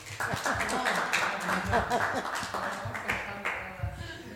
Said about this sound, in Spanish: Se puede aplaudir, se puede aplaudir.